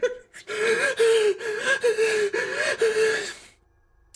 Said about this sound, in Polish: Słyszysz, że znowu tak, tak. hiperwentylacja?